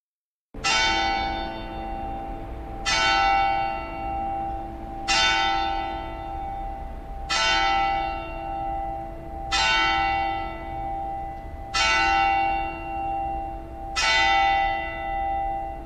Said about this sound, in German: Geisterstunde. Mit dem ersten Glockenschlag hat das Vergangene geendet, mit dem letzten Glockenschlag wird etwas Neues beginnen. Die Zeit dazwischen ist alles offen.